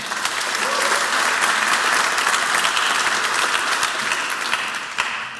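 An audience applauds the opinion panel of Vers Beton, a dense wash of many hands clapping at an even, fairly loud level for several seconds with no voices standing out.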